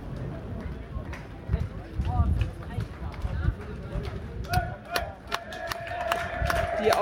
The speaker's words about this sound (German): den verdienten Applaus bekommen, sich hier alleine hochkämpfen.